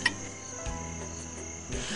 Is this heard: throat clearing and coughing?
no